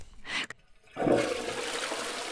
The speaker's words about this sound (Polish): Gdy usłyszałam, jak spuszcza wodę, zapukałam, aby nie zdążył się rozebrać.